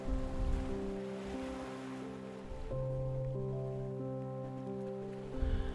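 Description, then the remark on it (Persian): Soft, steady wash of gentle sea waves swelling and receding, blended with sustained calm musical tones; no voices, a quiet, continuous ambient bed. “اگر دوست دارین میتونین تصور کنین که روی یک قایق کوچیک خوابیدین و میان امواج دریا امواج آرام دریا بالا و پایین میرین در حالی که آرام به خواب رفتین”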